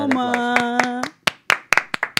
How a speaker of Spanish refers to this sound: Aplausos.